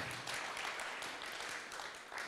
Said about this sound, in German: Und dann geht das Lobpreisteam, ihr habt uns in die Gegenwart Gottes geführt heute Morgen. Applaus